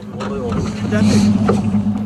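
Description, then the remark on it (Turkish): A rescue motorboat engine drones steadily on a lake in cold weather while towing a broken-down fishing boat, a low humming rumble mixed with rushing wind and water noise, with faint voices partly buried beneath it. “Bozulan tekne kurtarma botuna bağlanarak çekildi.”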